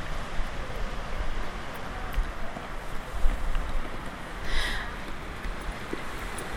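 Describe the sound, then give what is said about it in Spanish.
Ocean surf rushes steadily around a solidified lava tongue jutting into the ocean with sea on both sides, a continuous broad wash of water with one swelling surge partway through, mixed with gusty wind buffeting the microphone. “yo estoy aquí, nos hemos entrado, eso, una lengua de lava solidificada en medio del océano, si se escucha.”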